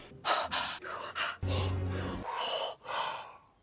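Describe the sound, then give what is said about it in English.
A voice imitates the rhythmic ritual breathing of the Hårga cult: a series of sharp, breathy gasps and exhales in a steady pattern, about six or seven pulses, fairly loud with no talking. “The way the Hårga breathe as well.”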